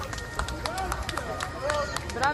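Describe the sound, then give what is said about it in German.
An outdoor street crowd of passersby in Palermo cheers and claps after an arrest, with scattered sharp hand claps mixed with raised voices and shouts, continuous for the whole stretch. “Ja, da wird gejubelt, es wird applaudiert, die Leute auf der Straße, Passanten, die Bevölkerung von Palermo, die äh, merkt, was da passiert ist, die applaudieren”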